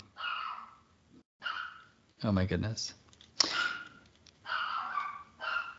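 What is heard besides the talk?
puppy barking and yipping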